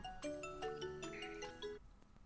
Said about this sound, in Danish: Der er en, der ringer.